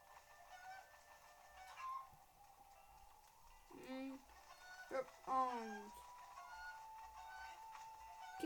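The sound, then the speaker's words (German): A rooster clucks and calls in short, throaty bursts, with a louder run of rising squawks midway, over a steady background hum. “Dieses Hühnchen tut mir ein bisschen leid. Wobei es ein Hahn ist.”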